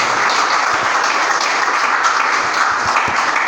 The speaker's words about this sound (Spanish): Denle un aplauso a Jesús, por favor, ahí donde está.